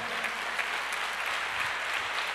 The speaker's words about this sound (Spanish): Y el pueblo dice, ¿cómo dice el pueblo? Dele fuerte ese aplauso al Señor.